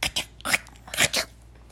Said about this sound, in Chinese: 啪啪嚓嚓，嗯，这个是什么东西呀？我咬了一块来吃，咸咸又香香的味道扑鼻而来了，呃，我再大口咬一口。